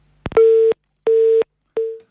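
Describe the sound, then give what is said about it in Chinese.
A telephone busy tone after a caller's line suddenly cuts off: a click, then a steady mid-pitched beep repeating three times in an even on-off rhythm, loud and alone, with the last beep cut short. “电话突然断掉了，请我们导播联系一下啊，看看这个电话是不是还在畅通的状态。”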